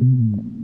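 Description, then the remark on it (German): A low, rumbling gurgle of a hungry person's growling stomach, fairly loud, sustained for under a second with a slight wobble before fading out. “Oh, Entschuldigung, das war mein Magen.”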